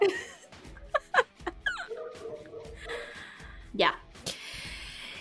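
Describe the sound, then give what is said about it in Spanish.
Dogs bark outside a window in a handful of sharp, irregular bursts, with a short pause before a final bark, while a voice and some laughter sound faintly in the background. “ya, vinieron, pero me vinieron a ladrar a la ventana.”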